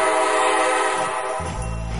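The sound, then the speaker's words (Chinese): A loud, sustained train horn blares with steady harmonic tones, then the deep low rumble of a passing train swells in underneath during the last half second. No one speaks. “今天就跟着小竹一起乘上这趟有趣的站点名字的火车吧”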